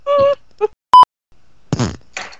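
A few short, buzzy fart noises coming over a call line, fairly loud, interrupted by a brief clean electronic beep, then a longer sputtering blast trailing into a rough, flapping rasp.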